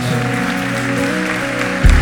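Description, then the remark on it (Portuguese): An audience at a church service claps in a steady, continuous wash of applause, praising God for people's decisions to accept Jesus, while sustained keyboard chords hold underneath, ending with a low thump near the close. “Aplaudo o Senhor por essas decisões nessa noite.”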